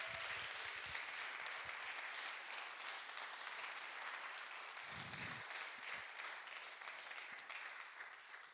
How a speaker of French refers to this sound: Et je crois qu'on pourrait l'applaudir ce soir pour dire merci Seigneur pour cette grâce.